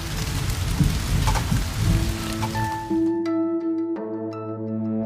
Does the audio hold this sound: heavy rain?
yes